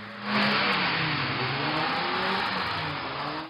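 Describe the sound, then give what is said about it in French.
Loud, continuous roar of dozens of car engines revving hard in street rodeos in a small town in Île-de-France, pitch rising and falling as the cars accelerate at full speed and chain drifts, with broad rushing tire and road noise throughout and no talking. “Sur ces images amateurs, des rodéos incessants, des dizaines de voitures lancées à pleine vitesse enchaînent les dérapages.”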